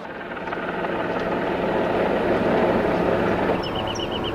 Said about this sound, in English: The helicopter was supposed to pick up the coroner's office personnel, but the pilot got a distress call.